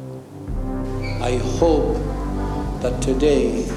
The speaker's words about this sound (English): And then the whole thing um, is being backed up by this riff that's fading in. Which is the trombones and the 808 bass. So that's fading in and getting more intense the whole time